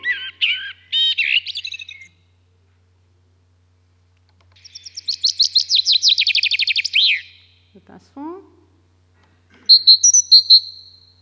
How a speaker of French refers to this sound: Alors, juste quelques exemples pour vous mettre un petit peu dans l'oreille des différences entre espèces. Le merle, qui doit vous être familier,